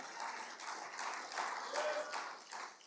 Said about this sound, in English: If you believe that, come on, somebody clap your hands and praise him.